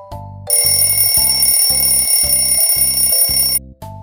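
A loud alarm clock rings for about three seconds, a bright continuous bell over a steady, rapid rattling pulse, alone with no talking, then cuts off abruptly.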